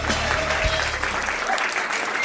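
A burst of applause from a small group for a birthday during a live Spanish broadcast, steady, with dense clapping filling the whole short stretch and no one speaking over it.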